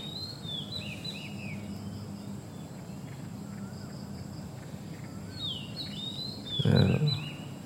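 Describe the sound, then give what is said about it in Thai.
Small birds chirp faintly outdoors in two short bursts of quick, high tweets, set against a steady wash of background noise, with a brief louder rustle near the end. “ทางหูก็มีเสียง สังเกตมีเสียง เสียงนก เสียงไก่ เสียงสายลมพัดต้องใบไม้”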